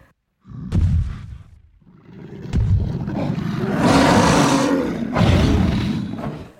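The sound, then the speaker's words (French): A deep, rumbling cave bear roar sound effect bellows loudly in two long surges, heavy low growling rising into a harsh, breathy peak, with no one speaking. “On peut aussi y voir des traces de griffes d'un ours des cavernes.”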